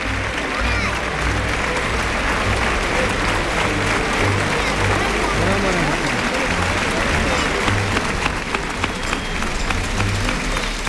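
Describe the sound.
A bullring crowd gives a loud, sustained ovation for bullfighter Tomás Rufo as he comes out with the cape in his left hand and the montera in his right and salutes the presidency. The dense applause rolls on steadily for about eleven seconds with a murmur of voices mixed underneath.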